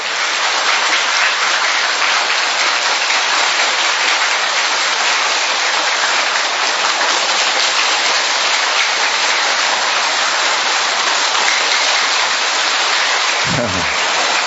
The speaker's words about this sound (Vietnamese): chúng ta cùng vỗ một tràng pháo tay đốt một tràng pháo tay thật lớn thật to và thật dài để chúng ta chào mừng nhau trong những ngày tết sắp đến thưa anh chị em